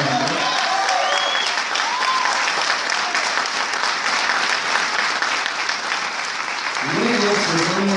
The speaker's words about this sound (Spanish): es costarricense, que pido fuerte aplauso, diamante internacional.